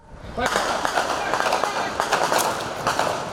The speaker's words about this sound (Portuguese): No meio do confronto, houve rajadas de fuzil.